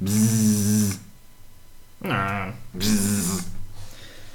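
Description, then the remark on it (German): A voice buzzes out three loud engine-like bursts, imitating a Formula 1 racing car, with the pitch sweeping downward on the later revs and short quiet gaps between them. “Kracht zwar nicht mehr ganz so vom Sound wie früher, weil die Autos halt anders klingen.”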